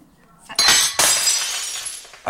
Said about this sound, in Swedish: du har även haft sönder ett glas för Micke Bindefeld. vi mm. lyssnar på hur det lät.